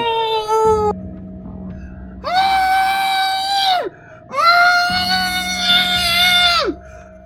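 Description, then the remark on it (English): Two long, loud, wailing screams rise and hold before trailing off, with a short gap between them, as mad men go around and around shrieking and raving, slobbering and drooling. A faint steady hum sits underneath. “Mad, all of them, all of these great men around and around, slobbering, drooling.”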